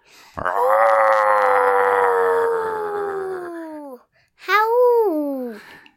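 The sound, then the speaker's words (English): A person imitates a Yeti roar: a loud, long drawn-out howling cry that slowly sinks in pitch, followed after a brief pause by a shorter second howl that rises and falls. “exactly what a Yeti sounds like, mm. right? Um, I can do how you would a roar. Okay, I'll roar.”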